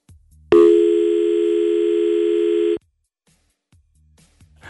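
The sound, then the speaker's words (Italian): A steady, loud telephone dial tone sounds for about two seconds after a phone line drops, a flat unbroken electronic hum, then cuts off abruptly, leaving near silence with a few faint clicks. “è caduta la linea, cerchiamo di, di, di, di rimettere in sesto, di, ripristinare, come dicono quelli bravi, il collegamento”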